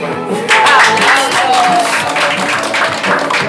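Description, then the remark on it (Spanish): A burst of applause starts sharply and continues steadily for a few seconds, dense rapid clapping from a group, with a few voices and cheers mixed in. “¡Aplausos!”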